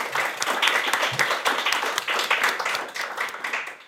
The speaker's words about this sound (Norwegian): Gi en applaus